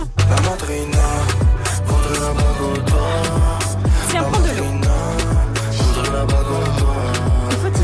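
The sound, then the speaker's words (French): A French rap track plays loud, with booming, sliding bass hits landing on a steady beat, crisp hi-hats, and a rapped vocal riding on top. “Ça, c'est le son”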